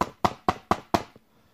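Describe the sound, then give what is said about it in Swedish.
Five firm, evenly spaced knocks on a door, fairly loud, each with a short resonant decay, followed by a faint trailing tap before silence. “Men vargen gick raka vägen till mormorens stuga och knackade på dörren.”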